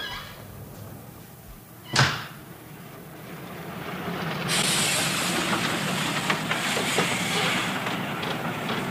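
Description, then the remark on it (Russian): Moscow mail train number 658 rumbles in to track one of a station, with a single sharp metallic clank early on, then a loud, steady hiss of air joins the low rolling noise as it pulls in. “Почтовый поезд номер 658 Москва прибывает на первый путь.”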